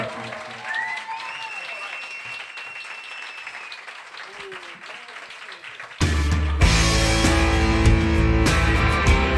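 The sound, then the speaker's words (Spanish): A large audience at the Café La Palma applauds and cheers loudly, with scattered whistles, welcoming a rap artist onto the stage; the roar swells even louder partway through as music seems to join in. “Y por eso este aplauso es así de tumultuoso y de fuerte y este rugido”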